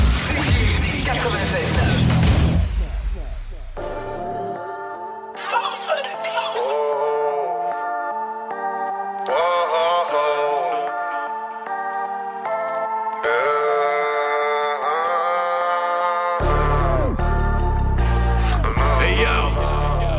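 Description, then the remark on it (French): A hip-hop rap track plays loudly, with heavily processed, warbling vocal lines and deep bass, opening and closing with dense, noisy bursts of beat. “on s'en va écouter tel quel, man, …, avec, euh, …”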